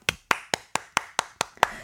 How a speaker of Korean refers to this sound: 오늘부터 저희 ENG의 가요광장은요, 어 여러분 박수 한번 주세요.